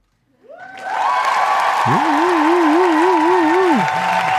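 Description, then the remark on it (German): Audience applause swells in quickly and holds steady for about four seconds as a dense, loud wash of clapping, with rising and warbling whistle-like tones riding over it. No one speaks. “Kannst du dir Applaus geben? Einmal Applaus, so?”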